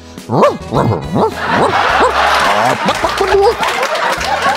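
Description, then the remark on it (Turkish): A man's voice imitates a dog, giving a quick run of loud, rising barks and yips, then trailing into a rougher, growling string of dog-like noises. “Bu arada sevgili köpeğim şu anda beni dinleyen erkek köpeklere şu mesajı yolladı.”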